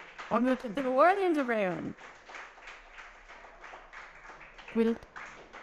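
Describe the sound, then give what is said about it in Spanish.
At a church service, a loud, drawn-out voice rings out, then the audience breaks into steady applause, a dense patter of clapping that continues under a brief shout near the end. “De un aplauso, Señor, Señor.”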